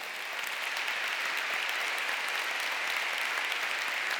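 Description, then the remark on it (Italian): An audience applauds steadily in honour of the people who look after the safety of magistrate Nicola Gratteri and journalist Federica Angeli, a dense, even wash of many hands clapping that holds at a constant level throughout, with no voices heard over it. “avete visto come Nicola Gratteri e Federica Angeli vivano la loro vita e come ci siano delle persone accanto a noi che si preoccupino della loro sicurezza e alle quali credo eh, debba andare il nostro applauso.”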